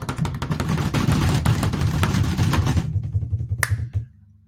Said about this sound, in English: Alrighty, quick drum roll, please.